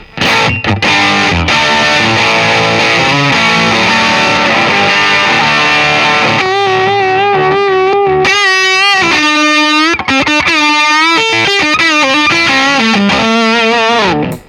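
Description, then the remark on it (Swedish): A fuzzed electric guitar through a stock Tombender Mark 1 fuzz pedal, tested without the preamp, plays a thick, saturated riff of sustained chords and then bending, wavering single notes, loud and buzzy throughout with no voices. “Och ska vi testa utan preampen och se hur det låter då?”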